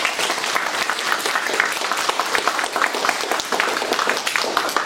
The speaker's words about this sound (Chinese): 好，我觉得大家应该真的鼓掌，非常感谢。